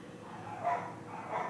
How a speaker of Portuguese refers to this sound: Calma, cachorro. Ó, o cachorro tá reclamando tá e eu nem falei nada.